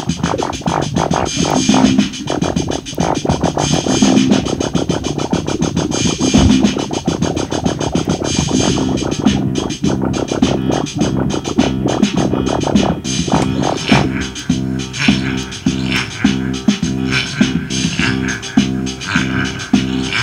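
Turntable scratching of a blurting raspberry sound, cut back and forth in quick rhythmic bursts over a steady beat and repeating bass notes, loud and continuous with no talking.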